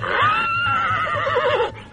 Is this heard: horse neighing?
yes